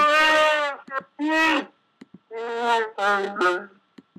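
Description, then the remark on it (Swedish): A growling Chewbacca sound effect, loud, delivered as a series of warbling, bleat-like vocal bursts separated by short pauses, with a few quick grunts near the end and no talking. “Jag har också hittat en sida med Chewbacca-ljud.”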